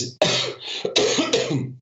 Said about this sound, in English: I have a still have a cough, so you'll have to cut out some coughs, I expect.